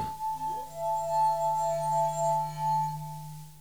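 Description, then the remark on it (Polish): A sustained, pure ringing tone from a wet finger circling a wine glass rim, holding steady for about three seconds before fading, with faint overtones and no voices. “Granie na kieliszku polega na pocieraniu wilgotnym opuszkiem palca o krawędź kieliszka z wodą bądź inną cieczą.”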